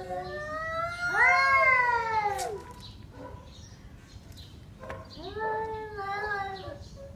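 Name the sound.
domestic cat meowing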